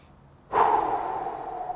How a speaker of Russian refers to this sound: А, начните дышать ровно. Вдох-выдох